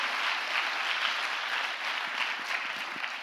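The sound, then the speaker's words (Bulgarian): An audience applauding together: dense, steady clapping that holds an even loudness throughout, with a broad bright wash of hand claps and no voices standing out. “О, ако ръкопляскаш, ръкопляскай, като че Бог прави разлика.”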